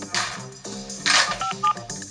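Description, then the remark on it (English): A quick series of telephone keypad dialing tones, several short beeps pressed in succession while phoning luxury-goods suppliers, with a faint background hum and no talking. “The phone calls have brought one surprising detail to our attention these tanneries and subcontractors are located in one small area of Tuscany, just 36 square kilometres.”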